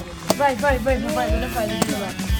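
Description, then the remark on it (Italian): A water whistle filled with water warbles continuously in bubbling, bird-like trills, mimicking chirping birdsong, with a few sharp clicks and low thumps punctuating the fluttering tone, in Alberobello. “sentite questo cinguettio di uccellini? Siamo in mezzo agli uccellini? Invece no, è, è Matteo con questo caratteristico fischietto ad acqua che produce”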